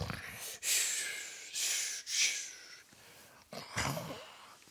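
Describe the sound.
A voice imitates loud snoring: a run of rough, breathy snorts and rasping inhales repeating in an uneven rhythm, fairly loud, with no other sounds around them.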